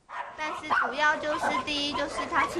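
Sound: dogs barking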